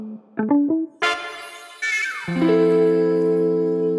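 A short electronic segment-separator jingle marking the start of block 2: a few quick synth blips, then a bright chord burst and a downward pitch sweep settling into a loud sustained chord that rings to the end, with no voices.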